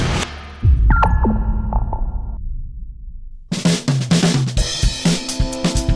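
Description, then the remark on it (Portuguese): The Clearcast intro jingle: a short electronic piece with a swelling whoosh and echoing sonar-like pings, then a loud burst of bright, rhythmic music for the last few seconds, with no voices. “Confira logo depois da vinheta, pois está começando agora mais um episódio do Clearcast, o podcast da Clear”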